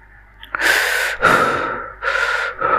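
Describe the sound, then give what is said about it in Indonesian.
Heavy, forceful gasping breaths come in quick succession, four loud airy pulls and exhales, sharp and breathy, from someone panting for relief after eating spicy food. “kita harus banyak napas kita harus banyak napas bukan akan pedes ya”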